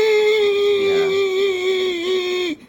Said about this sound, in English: See, the bird's opening its mouth and making noises. I think that's the actual bird.